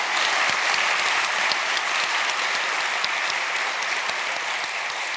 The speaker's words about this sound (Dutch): Maar natuurlijk vooral een hartelijk applaus